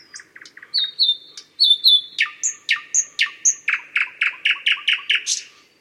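A common nightingale sings a varied phrase: soft repeated notes, clear whistled tones, then a loud, rapid series of harsh, evenly spaced chirps building to the end, alone.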